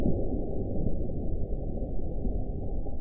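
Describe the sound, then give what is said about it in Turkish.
An evening thunderstorm in Erzurum, Turkey, with heavy rain and lightning: a dense, steady roar of downpour with a deep, muffled rumble running through it, loud and continuous for the whole stretch, with no voices. “Erzurum'da akşam saatlerinde başlayan yağmur gök gürültülü sağanak yağmura dönüştü.”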